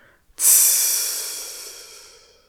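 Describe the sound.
A voice imitates the sharp sizzling hiss of a blacksmith's hot metal plunged into water to cool, one loud burst that starts abruptly and slowly fades out over a couple of seconds.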